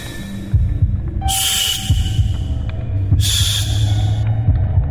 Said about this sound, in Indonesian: Jantungku terus berdetak tambah cepat.